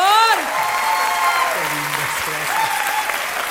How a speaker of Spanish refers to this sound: Bueno, pues bienvenidas, ¿verdad?, a este debate presidencial de dos candidatas, dos cocholatas que tenemos aquí. Un aplauso para ellas, por favor.